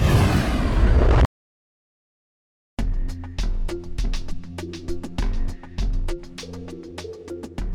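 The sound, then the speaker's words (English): A spaceship plummets into trees and explodes: a loud, roaring crash explosion bursts for about a second, then cuts abruptly to silence before music with steady percussive beats begins. “The pilot closed her eyes as the ship plummeted down towards the trees. Three, two, one. She never even felt the explosion.”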